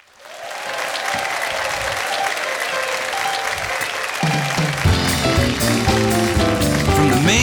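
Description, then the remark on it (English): A sold-out audience at The Dennis Bono Show in the South Point Hotel showroom, Las Vegas, applauds steadily in a dense, continuous wash of clapping, and about halfway through band music starts playing underneath while the applause carries on. “Once again, a sold out audience enjoying today's show.”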